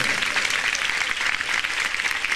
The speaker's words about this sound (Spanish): Dele palmas a Dios. Dele palmas a Dios. Más fuerte, fuerte, fuerte.